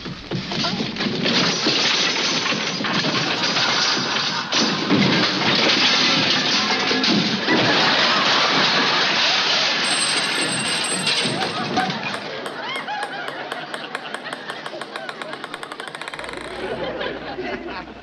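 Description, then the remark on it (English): Overstuffed closet contents crash out in a long, loud avalanche of clattering, thudding and smashing objects, tumbling for many seconds before settling into lighter rattles and a thin tinkling at the end. “Gotta clean out that closet one of these days.”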